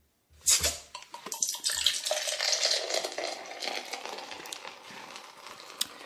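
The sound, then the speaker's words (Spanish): A drinking sound effect played from a soundboard device: a burst of splashy, gurgling liquid noise that begins abruptly, churns steadily for several seconds, then slowly tapers off, with no voices. “Dejadme que beba un poco, que estoy un poco seco.”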